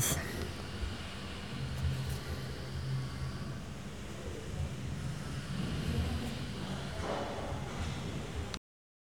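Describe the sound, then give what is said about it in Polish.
Steady, low rumbling wind noise blows across an outdoor microphone for several seconds, a broad continuous wash with no voices, cutting off abruptly near the end. “Teraz ustawiłem, proszę Państwa, na 300 Hz i akurat zaczął wiać lekki wiatr. Wieje lekki wiatr.”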